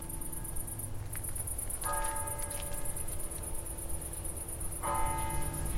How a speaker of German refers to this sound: Man denkt ja im ersten Moment, es ist ruhig, aber man hört ja Geräusche, die von weiter weg sind, viel lauter. Man hört auch Grillen intensiver.